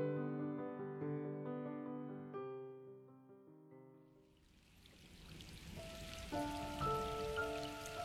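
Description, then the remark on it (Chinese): Sustained, gentle musical tones play alone at first; about halfway through, a loud, steady hiss of heavy pouring rain outside, heard through a wide-open window, sweeps in and continues under the music to the end. “那时窗外正在下着雨，我大开着窗户，听外面滂沱的雨声。”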